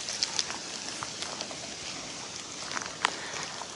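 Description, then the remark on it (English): Rainwater drips down from overhead trees during an alpaca feeding round, scattered drops tapping irregularly and sharply against a steady, soft wet hiss, with a louder splat near the end. No one speaks. “Oh, more rain it's not actually rain, it's just coming off the trees.”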